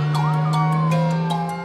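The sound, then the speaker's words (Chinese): A police car siren wails loudly in a steady, sliding tone, heard over a constant low engine drone with brief rhythmic pulses and no voices. “原来世界上不止嘟噜嘟噜一种音乐： 警车”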